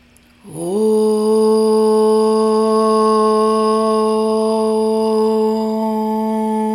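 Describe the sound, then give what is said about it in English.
After an inhale through the nose, a single voice chants one long, steady om, rising in after a brief pause and holding a rich, even tone for several seconds without fading. “And then we'll inhale through the nose for one sound of om.”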